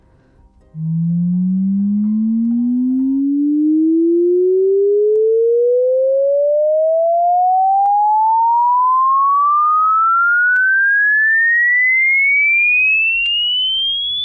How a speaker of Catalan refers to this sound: com va modificant-se el so a mesura que van augmentant el número d'hertz